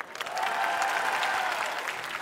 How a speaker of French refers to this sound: Applaudissez ceux dont le conjoint leur tape parfois sur les nerfs. Applaudissez ceux que leurs enfants fatiguent.